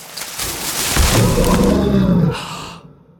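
A single loud, growling dinosaur roar sound effect, not a real dinosaur, played during Dinosaurs Week on the show Chompers, swelling for about a second and a half, rumbling low with a raspy top, then trailing off into silence. No one speaks.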